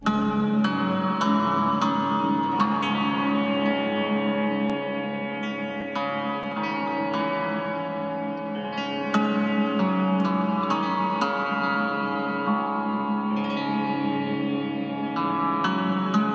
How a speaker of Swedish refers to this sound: den äldsta musiken som fortfarande finns kvar så heter Hurrian hymn nummer 6